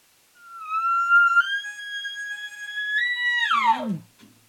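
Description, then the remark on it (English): A single long, high-pitched elk location bugle made with a call, a rising whistle held for about three seconds before sliding down into a throaty grunt. Loud, with nothing else in the background. “You you sound off this a location bugle.”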